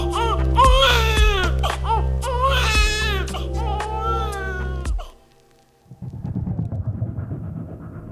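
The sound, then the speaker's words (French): A newborn baby boy, just born as his mother gives birth, wails in several strained, high-pitched bursts over a low steady hum, then falls silent; a muffled murmur of voices follows. “C'est à cette seconde que …, le premier fils du couple, pointe son nez.”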